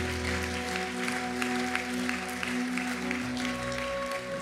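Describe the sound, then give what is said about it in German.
An audience at a church service applauds steadily after people commit their lives to Jesus in prayer, a dense wash of many hands clapping at a fairly even level throughout, with a sustained low musical tone humming underneath. “Lasst uns jetzt mal einen großartigen Applaus geben.”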